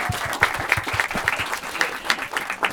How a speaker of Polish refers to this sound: tak, oklaski.